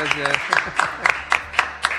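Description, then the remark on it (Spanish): Audience applause for two guests, a father and his son, comes through as steady, rhythmic clapping, about eight sharp claps in two seconds at an even beat, with voices murmuring underneath. “Un aplauso fuerte para los dos.”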